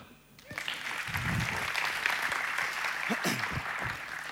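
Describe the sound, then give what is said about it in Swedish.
An audience breaks into applause for people who have come up onto a stage, a dense crackle of many hands clapping that rises quickly and holds steady, with a few brief voices calling out beneath it. “Vi kan väl ge dem en applåd eller?”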